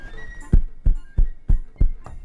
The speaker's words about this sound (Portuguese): Bateram na porta. Não, acho que não foi assim que bateu na porta. Acho que foi assim, ó.